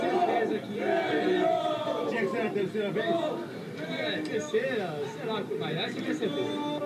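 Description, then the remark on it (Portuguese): A large crowd of Brazilian fans cheers and chants loudly and continuously, many voices rising and falling together in a sustained, energetic roar that fills the whole stretch. “Obrigadão e agradecer demais a torcida brasileira que está aqui.”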